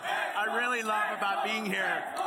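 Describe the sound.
A large crowd of Mexican fans chants and cheers loudly, many voices shouting "Xbox" in unison, sustained and energetic throughout, jumping excitedly while Phil is talking on stage.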